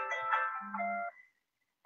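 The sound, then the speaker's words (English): A mobile phone that is set to silent plays its ringtone in a house: a short, bright melodic phrase with layered electronic tones for about a second, then it cuts off into silence before a voice briefly starts up at the end. “my phone is just going off, even though it's on silent.”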